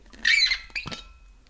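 A quick sip of a drink: a short squeaky slurp followed by a soft gulp, then quiet. No one speaks.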